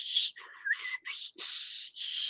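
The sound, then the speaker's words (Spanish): A voice imitates the warbling whistle of a shortwave radio being tuned, with several wavering, gliding high-pitched tones broken by brief gaps, fairly loud with no other talk. “prendió el radio, esa onda cuarta se oía,”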